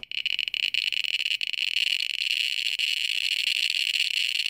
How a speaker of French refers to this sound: Est-ce que pour vous, il y a déjà euh, certains sons qui renvoient euh, à la notion justement de déchets ou voire carrément de déchets radioactifs C'est quelque chose qui existe déjà Je prends souvent l'exemple du compteur euh, GGR Geiger